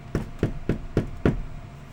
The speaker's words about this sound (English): There'd be a knock at the door.